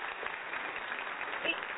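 An applause sound effect: a short burst of many hands clapping in a dense, steady patter that holds at an even, moderately quiet level throughout, with a slightly muffled, thin tone.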